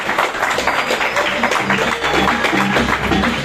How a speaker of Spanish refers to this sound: Bueno, un aplauso para ellos, por favor.